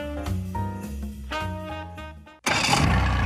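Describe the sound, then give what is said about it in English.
After a couple of seconds of tonal, musical notes, a boat engine abruptly fires up and settles into a loud, steady roar. “For over 30 years, boaters and fishermen have counted on Nationwide to fire up their engines to keep their electronics going, week after week,”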